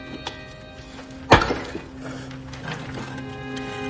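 A brick is shifted aside from a pile of stones and bricks: one sharp, heavy clunk of hard material, with a few faint knocks and scrapes before and after over a low, steady background hum.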